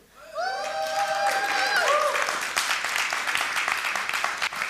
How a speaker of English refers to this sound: Well, if that's the clap you give God doing that, I'm, I'm a bit disappointed.